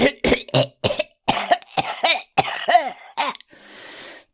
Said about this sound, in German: Der Dorfälteste räusperte sich